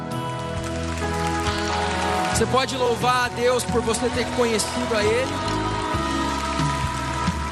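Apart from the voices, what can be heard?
audience applauding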